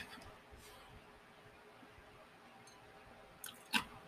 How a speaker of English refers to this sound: Oh, excuse me. I have to take a sip of my my Kool-Aid, nice and sugary.